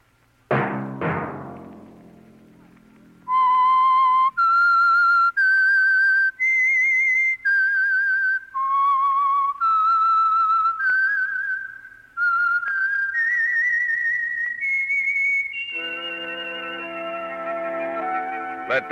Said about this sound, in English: that whistle be your signal for the Signal Oil program, The Whistler, each Sunday night at this same time.